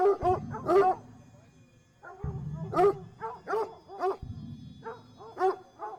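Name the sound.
dogs barking and yapping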